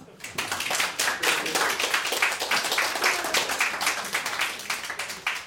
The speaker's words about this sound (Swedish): En liten applåd.